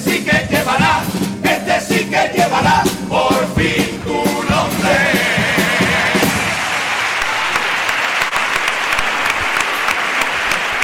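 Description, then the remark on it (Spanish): Loud, sustained audience applause at a carnival after a paso doble is sung, a dense wash of many hands clapping that swells early with some brief voices mixed in, then settles into a steady, even roar to the end. “Lo que te debe hacer el carnaval, sé que no lo podemos pagar porque este paso doble, pero al menos disfruta que el aplauso que escucha este”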